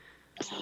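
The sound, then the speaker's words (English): A single sharp sneeze bursts out after a brief quiet moment, fairly loud, with a short breathy tail and no talking around it. “Bless you. Bless you”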